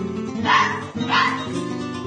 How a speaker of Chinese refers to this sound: 哦哦，是狐狸的声音。